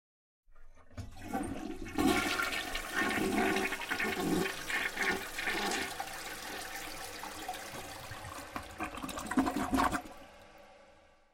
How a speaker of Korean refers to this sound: 변기물도 내려보았다.